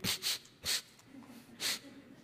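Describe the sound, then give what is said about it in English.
A person imitates sniffing, making four short, sharp nasal sniffs in an uneven rhythm, fairly loud, with soft breathing between them. “The more she would sniff and the more she would blow, I said, "Oh, getting close to that date."”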